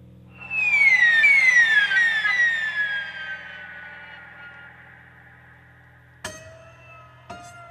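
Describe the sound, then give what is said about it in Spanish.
A high, wailing cello glissando sliding along the whole neck swoops downward like a seagull's cry, as marked in the score, fading slowly over a low sustained drone, then two sharp struck accents near the end. “Eso en la partitura lo, especifica como el, llanto de la gaviota, se desplaza con un glissando por todo el mástil y el piano está utilizando un, un cincel sobre directamente las cuerdas, ¿no?”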